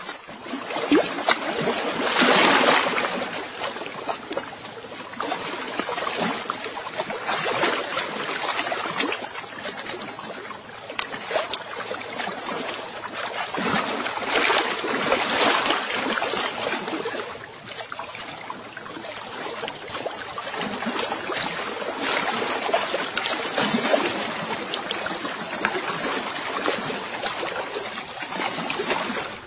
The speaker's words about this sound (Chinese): 现在就来听听更加清晰的青海湖的水向你扑过来的声响。